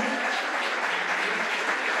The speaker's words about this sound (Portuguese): Boa noite, igreja. Estamos celebrando três anos. Vale na salva de palmas porque Deus tem feito.